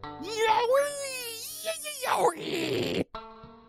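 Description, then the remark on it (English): A loud, close wailing cry of a yeti right outside a house at the edge of a trail, one long sliding, moaning howl that rises and wavers before breaking into a rough, breathy roar and cutting off abruptly. “You hear the cry again. This time it's even louder.”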